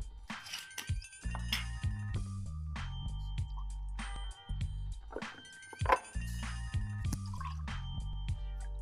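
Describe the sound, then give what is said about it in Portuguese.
Wine glugs and splashes as it's poured into glasses for a toast at a kiosk on a cold day, with a few light glass clinks and drips, fairly quiet against a steady low hum in the background. “Eu acho que esse momento merece um brinde, tu não acha? Com certeza. Serve nós aí, por favor.”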